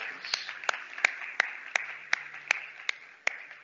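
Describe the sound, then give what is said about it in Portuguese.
An audience applauds Christ, a steady wash of clapping hands with sharper claps landing in an even, rhythmic beat about three times a second, moderately loud throughout. “Por que não das um aplauso a Cristo uma vez mais?”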